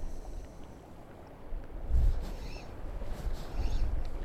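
Steady low rumble of wind buffeting the microphone during a fishing trip, with heavier gusts thumping in around the middle and near the end. Faint chirps sit in the background, and no one speaks.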